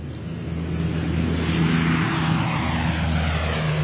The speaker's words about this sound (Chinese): 六点二十分，执行北京至拉萨航线任务的第一架飞机准时从西宁机场起飞。